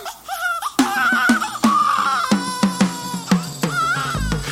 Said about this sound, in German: Ja, man hört ja am Anfang ihr Babygeschrei, mhm. was im Kreissaal offenbar aufgenommen wurde.